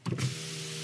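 A car's electric window motor whirs as the glass slides open, a brief mechanical clunk at the start followed by a steady hum that runs through the rest of the short moment.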